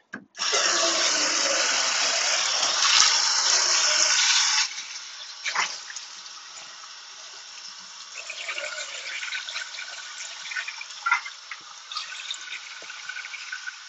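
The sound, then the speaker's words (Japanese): Water gushes steadily from a tap into a pot being filled to soak it after washing up, for about four seconds, then shifts to a quieter, uneven splashing and trickling as the water settles, with a few soft knocks. “はい、そしたら、ちょっと水につけたりするやつ。まず鍋ですね。”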